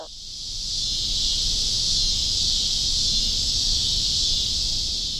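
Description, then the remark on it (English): A loud, steady chorus of cicadas buzzing in Chicago, a dense high-pitched drone that swells in within the first half second and then holds constant with no pauses and no voices. “Why Are The Cicadas So Loud”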